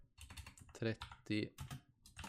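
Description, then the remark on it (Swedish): Quick, irregular clacking on a computer keyboard, a run of sharp taps with brief pauses, joined by a couple of short voiced sounds, as someone types down a note. “Jag skriver ner det här.”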